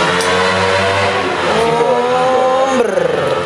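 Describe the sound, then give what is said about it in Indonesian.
A small Honda Beat scooter engine revs loudly and passes by at the edge of a toll road, its whining pitch rising and then falling away over a steady rumble of traffic. “Ini mah beat ini anjir beat mer. Beat racing.”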